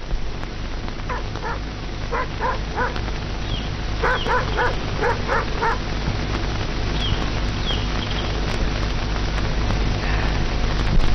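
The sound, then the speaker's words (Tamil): An Alsatian from the corner house, its gate left open, gives chase and barks in quick bursts of several sharp, mid-pitched woofs, pausing between volleys, over a steady hiss of rain-like background noise; fainter yelps trail off toward the end. “அந்த மூல வீட்டு அசேஷனா இல்ல இன்னைக்கு கேட் திறந்து வச்சுட்டாங்க துரத்த ஆரம்பிச்சிச்சு”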